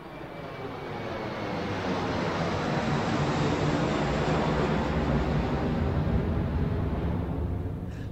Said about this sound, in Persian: هواپیما سرانجام به پرواز درآمد و نیویورک را به مقصد برازیلیا ترک کرد.